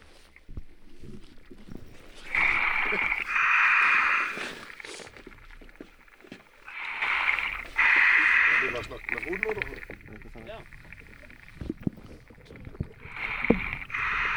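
A scuba diver breathes underwater: regulator hiss and rushing bursts of exhaled bubbles come in slow, regular cycles, each lasting a couple of seconds, separated by quieter muffled gaps.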